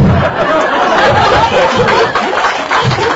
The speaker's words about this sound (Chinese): 谢谢大家。你看这个掌声就知道，大家可能对 MBA 班是还是非常期待的，是不是？